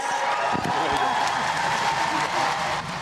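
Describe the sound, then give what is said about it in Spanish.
An audience applauds Lupita D'Alessio on receiving a career award, steadily and loudly for the whole three seconds, a dense wash of clapping with a murmur of crowd voices and scattered cheers mixed in. “Aplausos a Lupita D'Alessio.”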